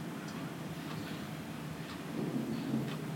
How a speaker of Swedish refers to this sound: Jag hör min klocka som tickar på väggen och åskan som mullrar i himlen.